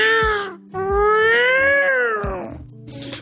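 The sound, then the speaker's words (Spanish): A cat meows loudly: a short cry, then a long, drawn-out wailing meow that rises and sinks in pitch. No one speaks. “Miau. No, eso no,”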